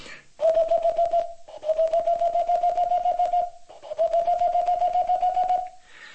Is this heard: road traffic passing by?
no